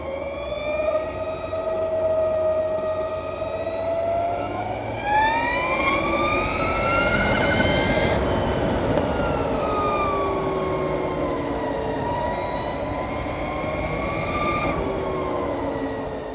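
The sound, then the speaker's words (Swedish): A Harley-Davidson LiveWire electric motorcycle revs up as the throttle twists, a rising and falling whine that climbs in pitch, eases off, then surges again over a steady background hum, with no talking. “Legendariska Harley Davidson har tagit fram en eldriven MC kallad Live Wire och så här låter den när man vrider på gashandtaget.”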